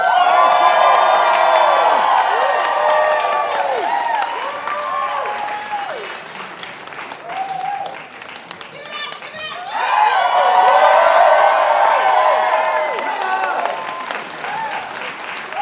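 A large audience applauds loudly and steadily while people cheer and whoop as a performer is welcomed back to the stage, the roar dipping briefly midway before swelling again and carrying on full to the end.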